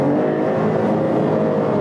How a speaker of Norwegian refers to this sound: Da snakker jeg ikke om motorlyd, men bare at det er mye lyd i bilen. Jeg merker at jeg snakker litt høyere. Merker du at det bråker mm. mye inni her?